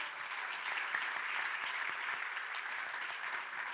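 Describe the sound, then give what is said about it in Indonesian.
A church audience applauds steadily for Jesus, a dense wash of many hands clapping at an even level for several seconds with no voices standing out. “Silakan duduk letakkan Alkitab saudara berikanlah tepuk tangan yang meriah bagi Yesus Tuhan kita.”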